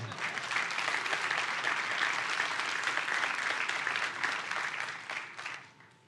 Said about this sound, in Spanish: Deme un aplauso, por favor.